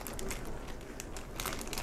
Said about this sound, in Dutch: Deze plastic zak heeft zo'n sluiting. En die viel eruit en viel er vanaf. Zo'n plastic ritsluiting. Dat valt er wel vaker af bij mij. Maar misschien ook omdat ik een uh, eh, merk heb, een huismerkding. En dat, dat is altijd wat gammelig.